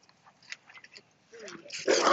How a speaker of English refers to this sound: Oh, hi. That's a big dog. Hey. All right. Come on, buddy. so you that was a uh, about a maybe a hundred pounder, 150 pound dog being walked by a 150 pound woman.